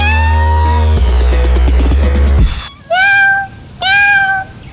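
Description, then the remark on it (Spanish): A pet cat named Sakuchan meows twice in quick succession, clear, each call rising then falling, following a few seconds of music that stops abruptly just before the meows. “Él es mi gato y se llama Sakuchan.”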